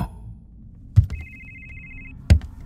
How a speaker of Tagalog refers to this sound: Hinanap ko ang pinanggagalingan ng ringtone Dinala ako ng paghahanap ko sa cabinet ko kung saan nakaimbak ang mga luma kong kagamitan. Nanggagaling ang ringtone sa bag kong itim. Kinuha ko ang cellphone sa loob nito.